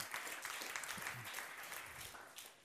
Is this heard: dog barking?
no